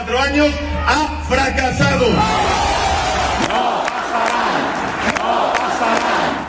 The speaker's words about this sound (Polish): nie przejdą, odpowiedział antyfaszystowskim zawołaniem tłum.